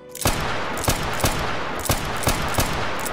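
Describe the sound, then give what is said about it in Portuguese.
A rapid string of loud, sharp gunshots, roughly seven cracks at slightly uneven intervals over a constant hissing, noisy background, with no voices. “Sim, ele, como reflexo, ele começa a disparar a arma.”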